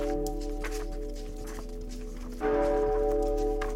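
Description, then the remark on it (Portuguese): A loud bell rings with a sustained, humming resonance that swells even louder partway through, while faint irregular knocks like hoofbeats or footsteps patter in the background. “Você justamente quando você começa a rezar meio que desesperadamente, você escuta um barulho de um sino muito alto.”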